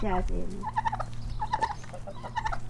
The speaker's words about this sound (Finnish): Mä en ole ikinä ollut näin lähellä kalkkunaa, voi hyvänen aika.